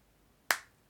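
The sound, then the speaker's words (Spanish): Two sharp hand claps, sounded alone about half a second apart. Each is a crisp, loud slap with a short ringing tail, and there is no talking. “bueno, un aplauso para la educación.”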